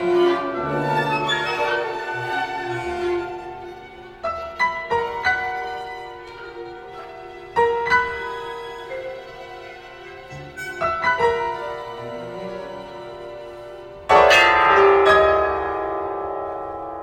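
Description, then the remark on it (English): Orchestral music from the coloristic middle movement of a piece, with dense, shimmering sustained harmonies punctuated by sharp, clanging piano chords at irregular intervals, ending with a loud, ringing attack that slowly decays. No voices. “I thought I'd play a little bit of some of that middle movement yeah.”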